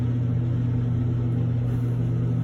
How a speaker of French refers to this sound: Surtout que là, je vais démarrer un ventilateur. Alors, un, deux, trois, Et voilà. Le ventilateur est démarré.